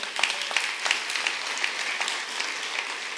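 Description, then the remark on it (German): An audience applauds with a dense, steady patter of many hands clapping, sharp bright claps standing out from a continuous crackling wash at an even, moderate loudness throughout. “Ja, Applaus.”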